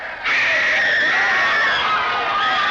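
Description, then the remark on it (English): A young girl of about two gives a loud, sustained, high-pitched scream of terror at a monster walking in. It bursts in after a brief moment and holds steady, with a faint rumble of commotion underneath as a crowd runs away screaming. “2 years old or something, but she's she's kind of in the foreground and in another person's lap and she just starts freaking out screaming the most horrific scream.”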